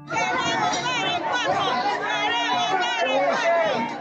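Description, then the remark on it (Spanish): A crowd gathered outside a morgue shouting and chanting together, a dense, continuous wall of many raised voices with overlapping calls, steady and loud for the whole stretch with no pauses. “No mucho después de que empezó la necropsia, con la noticia ya circulando por todas partes, las afueras de la morgue se llenaron de personas. Ya había gente afuera gritando, haciendo barras.”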